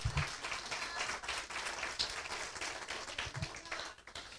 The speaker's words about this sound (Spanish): Aleluya, denle un aplauso si usted está agradecido al Señor.